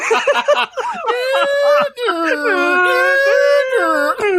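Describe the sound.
A person vocally imitates the Kill Bill alarm siren, loud sustained tones sliding up and down in pitch for several seconds, with no other talking.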